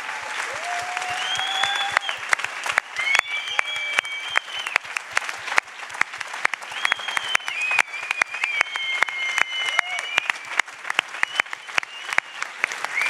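Steady applause from an audience for the many teams who have worked for weeks to make the event possible, dense clapping sustained throughout with a few whistles rising and falling above it, no one speaking over it.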